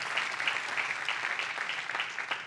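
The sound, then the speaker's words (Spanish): A crowd claps steadily, giving a loud round of applause to God, a dense, continuous patter of many hands holding at a fairly even loudness throughout with no voices rising above it. “¿Le puedo dar un fuerte aplauso a Dios por eso?”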